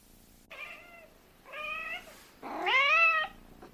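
A cat meows three times in a row with no other sounds, each call drawn out and the last one the loudest and most insistent.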